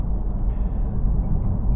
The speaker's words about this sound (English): that's when i get out on the roads when there's no traffic and go for a tear in one of my cars